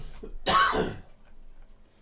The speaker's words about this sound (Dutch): Hou jij eens op met hoesten?